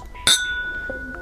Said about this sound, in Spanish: Hagamos un chinchín en el micrófono. Tremendo sonido. Sí, creo que saturo ahora que lo veo. Un poquito más lejos.